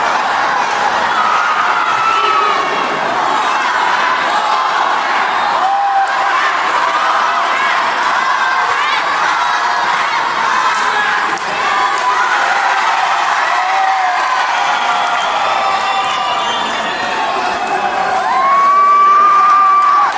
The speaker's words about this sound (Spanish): quiero eh, que escuchen eh, este pues esta sonido ambiental de cómo se escuchaba el público durante la función son unos segundos pero escuchen cómo es cómo fue esta función aquí en Cortland, Los voy a dejar con este pequeño sonido.